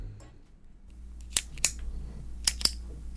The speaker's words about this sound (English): Yeah, it's a clicking pen. You know, you, you put the pen to write. It's the clicking device on the pen.